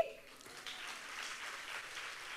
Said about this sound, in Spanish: Un aplauso